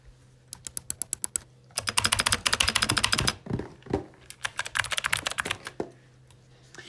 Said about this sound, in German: Ich schreibe jetzt meinen Nachnamen auf der Tastatur, ohne dass ihr das hört.